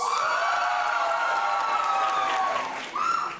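An audience at a comedy joke contest claps and cheers steadily to vote for the winner of the night, a dense wash of applause with rising whoops and shouts layered over it, dipping briefly near the end before swelling again.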